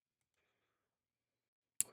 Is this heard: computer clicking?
yes